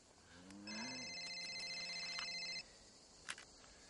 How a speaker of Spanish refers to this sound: Anacleto, que sigue vestido de charcutero, transporta al cadáver en una carretilla y para cuando le suena el teléfono.